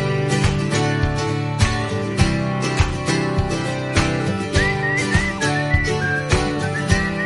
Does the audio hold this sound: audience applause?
no